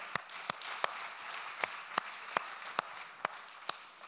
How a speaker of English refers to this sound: Very good, mate. Keep the claps going.